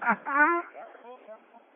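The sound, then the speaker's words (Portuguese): The single spoken word 'eco' from a radio operator, put through an echo effect, its repeats trailing off quieter and quieter, with a tinny, radio-like tone. “eu vou botar um eco aqui, ó. Ó, tô botando eco, eco.”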